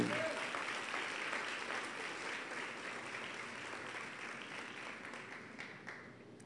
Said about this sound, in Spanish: Oh, dale más fuerte ese aplauso.